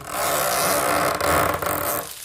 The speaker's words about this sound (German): Kann ich das verstärken? kann ich, weiß ich was für. Also Kinder sagen immer, du furzt, ja, also hier frische Luft in stinkende verwandeln. Aber es kann auch für knarrende Türen benutzt ja. werden und so ein Zeug.